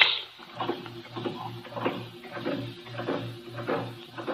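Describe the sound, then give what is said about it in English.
An air pump pumps the air out of an airtight room with no doors or windows, chugging steadily with regular rhythmic mechanical pulses about twice per second over a constant low motor hum, moderately loud, with no voices. “Pumping the air out of the room.”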